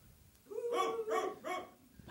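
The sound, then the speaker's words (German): A person imitates a dog barking far in the distance, letting out three quick, evenly spaced barks with a voiced, howl-like tone, with nothing else in the background. “Irgendwo in ganz weiter Ferne bellt ein Hund.”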